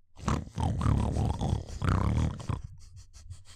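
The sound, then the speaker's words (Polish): Pigs grunting and snorting in a rough, low, continuous run for a couple of seconds, then trailing off into a quick rhythmic series of short huffing snuffles. “Siadasz sam i wsłuchujesz je w chrumkot świnek.”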